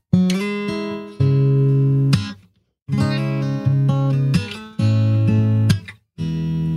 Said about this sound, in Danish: han spiller det på en øh, fed Fender Stratocaster, helt glasklar øh, lyd. Øh, men introen, det er sådan noget her.